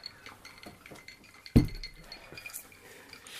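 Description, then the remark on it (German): A single bright, sharp clink of filled drinking glasses touching in a toast, ringing briefly against quiet background clatter and faint tinkling. “Haben vielleicht zum letzten Mal zumindest für den Podcast unsere Gläser ja. gefüllt. Wir sagen nochmal Prost.”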